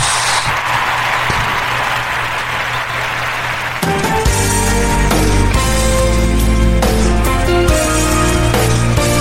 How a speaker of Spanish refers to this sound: Bueno, fuerte el aplauso